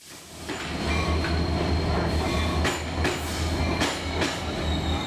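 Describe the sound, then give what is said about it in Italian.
A train rumbles steadily along the railway tracks of the Caracas railway, with a deep continuous drone, periodic metallic clacks from the wheels, and faint high squeals. No voices. “Che un treno spazzi via i diritti della gente può sembrare una circostanza assurda, ma qui lungo la ferrovia di Caracas non è un'eccezione.”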